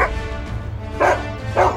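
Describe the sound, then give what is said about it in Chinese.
Two sharp, high-pitched yaps from small dogs, spaced about half a second apart, over a low steady background hum. Nobody speaks. “那些小黄狗、小白狗，当然也都从小黑狗变回来了。”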